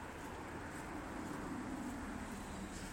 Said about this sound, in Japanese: ちょっと車の音がうるさいですもんね